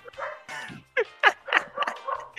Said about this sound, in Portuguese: Porra, vamos que gravar. merda, cachorro desgramado, velho.